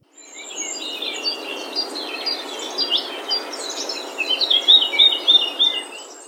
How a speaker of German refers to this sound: Okay, das ist irgendwie Vogelgezwitscher, oder?